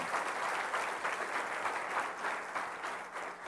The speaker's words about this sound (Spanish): Dele un aplauso al Rey de Reyes y Señor de Señores Jesucristo.